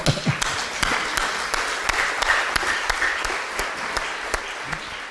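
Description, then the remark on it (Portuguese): Steady applause from a church audience, given to the Holy Spirit, a dense wash of many hands clapping at a moderate level, with a few sharper individual claps standing out at irregular moments throughout. “Eu acho que dá para dar um aplauso mais forte ao Espírito Santo, né?”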